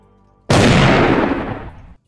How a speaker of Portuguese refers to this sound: A primeira coisa que eu faço é tirar a pistola e dar um tiro na mão. Na própria mão.